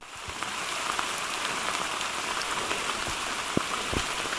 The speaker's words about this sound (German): Ja, wir sind im Regenwald. Es regnet, es ist rutschig, es ist komplett matschig. Es ist echt, naja, Regenwald.